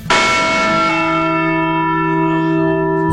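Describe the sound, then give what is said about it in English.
A single loud strike of the Liberty Bell in Philadelphia, Pennsylvania, rings out with rich, steady overtones that hum and slowly decay over a few seconds, heard alone with no talking. “Sweet sound of freedom there. The Liberty Bell.”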